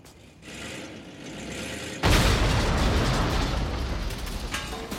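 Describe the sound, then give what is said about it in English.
A low, steady rumble gives way to a sudden, loud explosion of a bomb fitted with a clock, a single sharp blast that rolls into a sustained roaring rumble which slowly fades over several seconds. No one speaks. “It's lucky that bomb did have a clock on it.”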